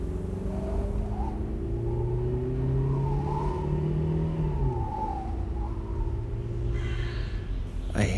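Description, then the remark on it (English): A car drives fast along an empty desert road with a steady, loud engine drone and low road rumble, the pitch shifting slightly as it goes, with a faint rattle near the end and no talking. “hear a kind of rattling again. Should I stop and check if something's wrong? I don't know a lot about cars, but I'm going really fast, so maybe I'm about to break something.”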